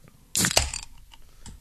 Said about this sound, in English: cracking open a cold one for good video games.